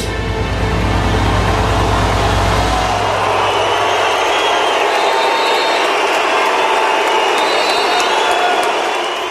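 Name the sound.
audience booing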